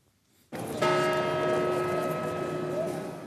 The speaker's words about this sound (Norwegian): Dette er lyden av Markusplassen under Venezia-biennalen. Her virrer tusenvis av turister rundt blant duer, historiske sverdigheter og overpriste restauranter.